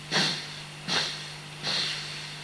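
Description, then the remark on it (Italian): Three evenly spaced, airy breaths in and out through one nostril, with the left nostril closed by the left hand during a breathing exercise. Each is a soft hissing rush lasting about half a second, with a steady low hum running underneath and no talking. “Finito questo, l'ultima volta che abbiamo espirato, trattenendo la respirazione, torniamo facendo lo stesso movimento dall'altra parte, chiudiamo questa volta la narice sinistra con la mano sinistra, inspiriamo ed espiriamo tre volte, la stessa cosa.”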